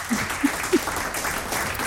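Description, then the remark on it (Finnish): A short burst of applause during a guessing game, steady crackling claps spread across the whole moment with a few louder low thumps near the start, moderate in volume. “Sekin ansaitsee taputuksen.”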